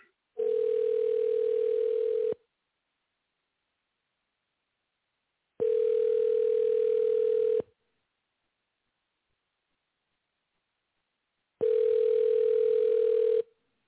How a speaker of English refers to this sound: I'm going to try to get guest on the line and should be calling him now. You able to hear that?